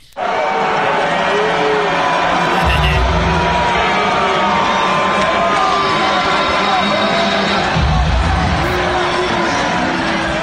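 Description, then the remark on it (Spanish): A large arena crowd at a UFC fight in New York roars continuously, shouting and booing at the president, full of overlapping shouts, yells and jeers, with swells of louder bellowing and booing rising and falling through the dense, sustained din. “Le gritaron de todo y ahora fue una pelea de la UFC allá en New York.”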